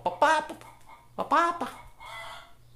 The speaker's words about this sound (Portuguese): Ah, que vontade de matar essa galinha, cara.